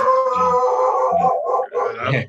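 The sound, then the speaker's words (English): A dog named Winnie howls loudly, a sustained wavering cry lasting a couple of seconds, with yelping breaks partway through and no talking over it. “We got a oh, nut job of a dog.”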